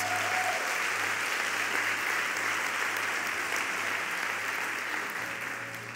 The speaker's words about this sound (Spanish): ¿Cuántos dicen amén? ¿Cuántos dicen amén? Si va a aplaudir al Señor, apláudalo con ganas.